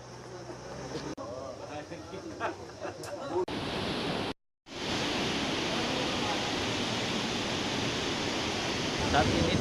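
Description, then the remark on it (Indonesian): A swift river current rushes loudly and steadily at the bottom of a deep, rocky ravine, a dense roar of water that takes over after a quieter opening with faint voices and continues to the end. “Derasnya aliran sungai Aek, Walu, Sipe, GPG juga menjadi kendala pencarian.”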